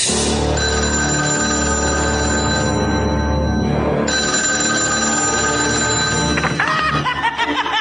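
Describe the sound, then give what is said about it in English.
A telephone rings loudly, its bright tone sounding steadily for several seconds with no one speaking, ending in a brief jumble of noise. “Boy, did you get a wrong number. Leave your message at the sound of the shriek.”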